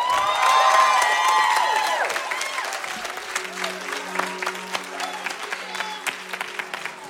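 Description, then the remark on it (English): A church audience erupts in loud cheering and shouting in praise of God, then settles into steady rhythmic clapping while a low organ-like tone hums beneath the applause. “Let's give him a shout of praise.”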